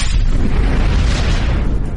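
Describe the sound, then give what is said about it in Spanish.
A loud, sustained explosion roars with heavy low-end rumble and crackling debris, holding steady for about two seconds without fading, like a blast sound effect with no voices present. “Las minas explotan.”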